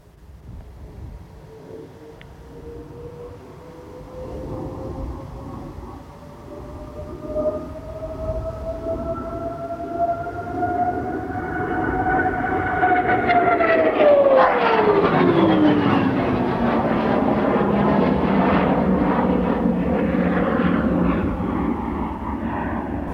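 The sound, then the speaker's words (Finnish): A fighter jet approaches with a rising whine, then roars past overhead, its pitch dropping sharply as it passes and the loud engine rumble lingers as it moves away. “Ja sitten semmoinen fiilinki, kun oli nuori väntikki ja fukasta pääsi lentää tämmöisellä hävittäjällä”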